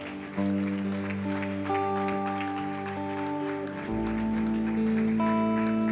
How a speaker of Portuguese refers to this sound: Glória a Deus, né? Salva de palmas a Jesus.